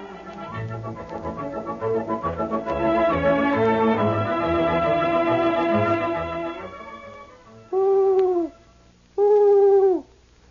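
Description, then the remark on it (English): Orchestral music plays and fades, followed by two loud owl hoots, each lasting about a second with a slightly falling pitch and a short pause between them. “Say, the owl is a wise old bird.”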